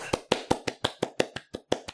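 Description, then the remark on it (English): A single person clapping by hand in place of an applause sound effect, about eleven sharp, even claps in quick steady succession, with no one talking. “Uh, could we get an applause sound effect, please? I'll just do one myself.”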